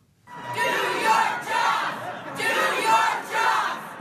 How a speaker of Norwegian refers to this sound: Gjør jobben din, ropte flere hundre sinte mennesker i delstatshovedstaden Helena i Montana. Det var ikke akkurat en velkomstkomité som tok imot den republikanske senatoren Steve Daines da han kom hjem fra Washington DC.